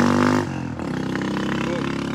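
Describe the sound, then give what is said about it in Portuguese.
A motorcycle rumbles past on the street by a hole in the asphalt, its engine loud with a steady droning hum that drops in pitch partway through, over a busy outdoor background. “E fica complicado, agora passou uma moto aqui, bem complicado mesmo.”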